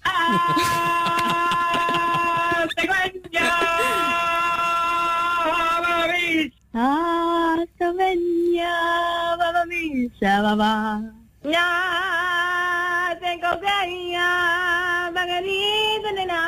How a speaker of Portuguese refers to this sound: Olha, já agora vamos ouvir os gritos também.